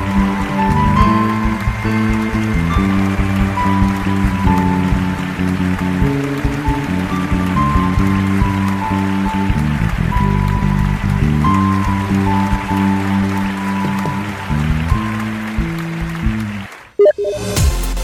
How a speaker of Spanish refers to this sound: Dale un fuerte aplauso a tu Rey. Apláudele. Apláudele. Apláudele, apláudele a tu Señor.